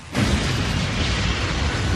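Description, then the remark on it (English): A loud, sustained explosion from a movie trailer erupts after a brief quiet start, its heavy rumbling roar spread across the whole range and holding steady to the end, with no voices present. “See, if we can hear that explosion”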